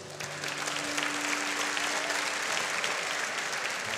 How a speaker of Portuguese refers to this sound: Qual foi a mãe que já fez isso aqui? Levanta a mão. Tirou do seu prato, pôs o prato do filho. Faz ainda? Vamos aplaudir essas mães?